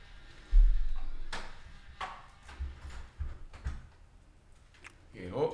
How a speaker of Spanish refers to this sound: Voy a cerrar la puerta.